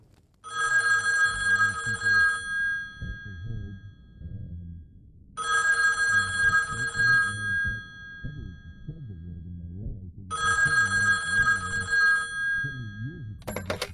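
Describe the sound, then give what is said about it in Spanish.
A telephone rings three times in regular bursts of about two seconds each, with pauses between, while low background music or murmuring continues underneath throughout. “Aquel día me llamó por teléfono.”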